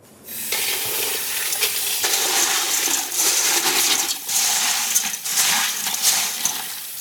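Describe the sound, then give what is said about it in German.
Water runs steadily while small hard expanded clay pebbles are rinsed in it for a bottle garden, clattering and rattling, a continuous washing sound with bright splashing and gritty clicks, no voices. “Ein Vorteil durch das Abwaschen ist auch, dass der Blädon jetzt schon das Wasser speichert.”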